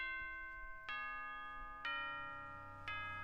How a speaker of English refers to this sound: Well, there's the bell. We all know what that means on the show. It's time for our closing thoughts.